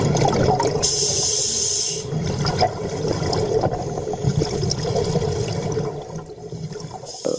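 Sea water splashes and churns steadily as a man trains at diving in the sea at Nador to cross the stretch of sea, in cold winter water of about 11 degrees; a loud, continuous rush of turbulent water with no one speaking.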